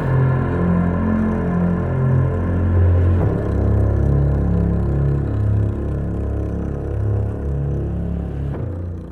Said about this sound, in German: und was ihr da gehört habt, war nicht etwa rückwärts, nein, das war der Soundtrack der aktuellen Folge, über die wir heute reden.